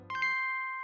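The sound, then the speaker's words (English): A bright ding-dong chime sound effect rings out once to mark a true fact, its two clear tones sustaining and slowly fading, with nothing else around it. “That's the sound of a Koch Brothers solid gold fact.”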